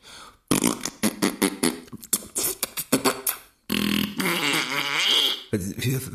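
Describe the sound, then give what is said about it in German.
A loud whoopee cushion fart noise: a long, buzzing, wobbling rasp lasting nearly two seconds, then a shorter blast, after a stretch of choppy, sputtering bursts. “Er fragt, was wir für das Pupskissen haben wollen.”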